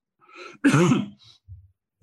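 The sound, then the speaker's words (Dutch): A speaker in a medical discussion about cancer immunotherapy coughs: a single harsh cough bursts out after a short breathy lead-in, followed by a couple of faint throaty rumbles. No one speaks. “Misschien dat het goed is dat jij wat gaat vertellen. Dan hoest ik verder.”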